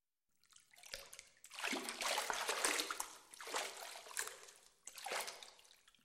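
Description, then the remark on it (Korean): Water splashes and sloshes as someone bathes with pure plants, rising in about four broad, hissing surges with softer trickling and dripping between them. No voices. “여신은 정결한 식물로 깨끗하게 목욕을 했다.”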